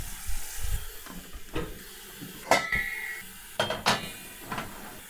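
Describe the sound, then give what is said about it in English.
A wok is pulled down as metal cookware clanks and scrapes, with two sharp ringing hits among softer knocks, over a steady hiss of running water filling a pot. “While that is filling, I pulled down a wok.”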